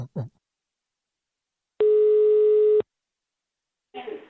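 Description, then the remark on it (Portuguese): A single steady telephone line tone, a loud electronic beep lasting about a second, sounds on its own between short snatches of voice at the start and end. “Pode liga o telefone”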